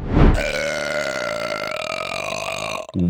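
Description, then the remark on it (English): A long, loud, drawn-out burp rumbles for nearly three seconds with a steady droning tone, ending abruptly before a brief follow-up sound. “How about a story about the burp that invented Einstein?”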